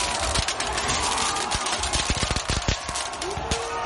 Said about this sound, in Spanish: Estamos escuchando aquí los fuegos artificiales que usaron los manifestantes como arma contra la policía, que se defendió de este ataque en formación de tortuga con sus escudos.